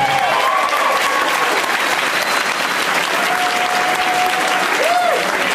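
An audience claps continuously in a loud, dense wash of applause that holds steady for several seconds, with a few thin whistled tones rising above the clapping; applause for the opening act.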